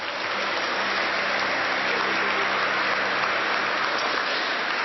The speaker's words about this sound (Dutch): Applaus, ja!